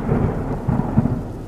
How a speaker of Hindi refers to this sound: बादलों की गरज से वो अंधेरी रात और भी खौफनाक लग रही थी